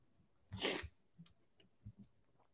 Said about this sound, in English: I literally need to blow my nose so bad.